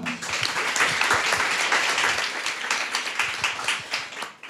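A crowd at a debate breaks into sustained applause for a nutrition expert being introduced, many hands clapping in a dense, crackling wash that holds steady for several seconds before thinning out toward the end.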